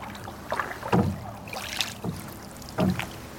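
Oars dip and pull through calm lake water in a slow, uneven rhythm, about three soft splashing strokes close by, with a faint breeze in the background and no voices.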